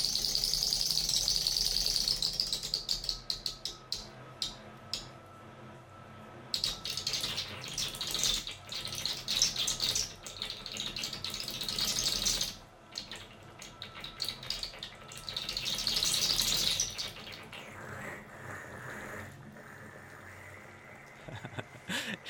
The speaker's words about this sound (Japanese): 私は毎日この音を聞いていますこの音はお風呂の残り湯を洗濯機で洗いに1回だけ使うんですが残り少なくなってホースで吸いきれなくなった時に聞こえる音です